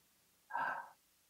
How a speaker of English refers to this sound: So what what the term Yahweh is is the sound of breathing. So if you inhale